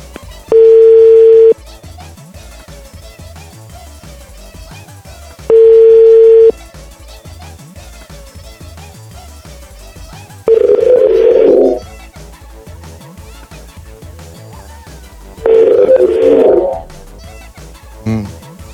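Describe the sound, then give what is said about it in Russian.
Telephone line beeps: four long tones about five seconds apart. The first two are steady and pure, the last two sound wobbly and distorted. Faint background sound runs underneath. “Что гудки срываются.”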